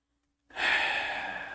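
After a moment of silence, a single long, deep breath is drawn in, a steady airy rush that holds at full strength until the end.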